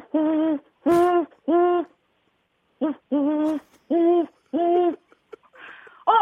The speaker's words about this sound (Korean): 잠깐, 갑자기 부엉이 소리 들리네요. 어, 부엉이?